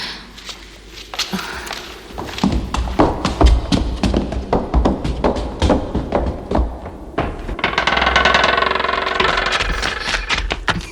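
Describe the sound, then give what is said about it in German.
A car engine approaches, a low rumble mixed with rapid mechanical clattering and rattles that build toward a louder, rushing roar near the end. “Da ist der Wagen.”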